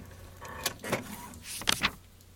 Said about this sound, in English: The only thing on is that printer over there. How can it be on if the power is out? Look, there's a page stuck in the queue.